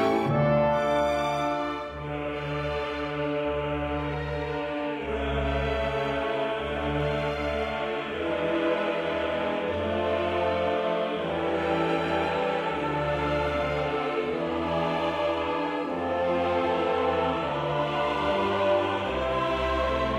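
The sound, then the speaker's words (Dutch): A full choir sings with orchestra in a solemn, dramatic classical requiem, with sustained swelling chords and a steady loud level throughout and no talking over it. “het Mozart Requiem uitvoeren”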